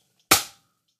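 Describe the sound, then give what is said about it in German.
One sharp hand clap rings out on its own after a countdown, a loud, crisp smack that fades away quickly, with silence before and after. “3, 2, 1, zwei, eins, klatsch.”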